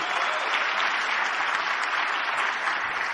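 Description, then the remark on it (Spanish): Steady audience applause for the organization's mentors, a dense crackle of many hands clapping at once, holding loud and even for a few seconds without a break. “Quiero un fuerte aplauso para ellos.”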